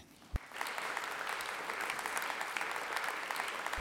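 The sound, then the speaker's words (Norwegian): A conference audience breaks into steady applause after a single sharp knock, welcoming a senior adviser from the Norwegian Police Security Service (PST) in Nordland; the clapping builds quickly into a dense, continuous patter of many hands that holds at a fairly loud level. “Gi en god applaus for seniorrådgiver i Politiets sikkerhetstjeneste i Nordland,”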